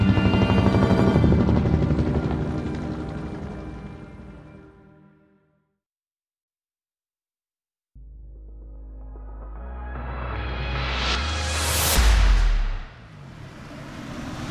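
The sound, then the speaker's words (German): An East German army (Volksarmee) helicopter roars low over a house with a garden, so close that apples fall from the trees, fading out; after a brief silence a second loud pass builds with deep rotor rumble, peaks sharply close by and recedes. No voices. “Genau in diesem Moment fliegt über das Haus ein Hubschrauber der Volksarmee hinweg.”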